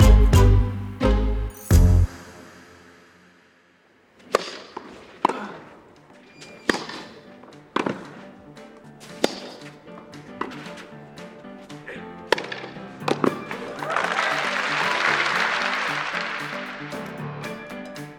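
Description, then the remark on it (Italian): A tennis rally on the clay of Roland Garros in Paris, Rafael Nadal's first ever rally there in 2005, with a serve and forehands: crisp racket hits trade back and forth every second or so, clear, before a crowd's roar swells loudly at the end. “Questi sono i suoni del suo primo scambio in assoluto sulla terra rossa del Roland Garros, il primo di sempre, anno 2005.”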